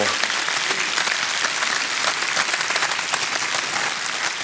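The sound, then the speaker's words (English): Sustained audience applause for the Supreme Court decision overturning Roe v. Wade, a dense steady wash of many hands clapping at an even, fairly loud level throughout, with no clear voices standing out. “I, for one, as I think your applause indicates, I'm grateful for the decision, and yet I'm not unmindful, as I'm sure you're not, how much work remains to be done.”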